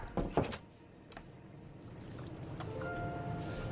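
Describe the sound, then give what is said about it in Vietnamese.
A door bangs shut near the start in two quick wooden knocks, then a steady low rumble of background noise carries on with no one speaking. “Bố con đóng cửa rồi”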